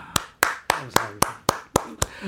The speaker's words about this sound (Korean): 제가 여러분들 대신해서 지금 박수 쳐드리고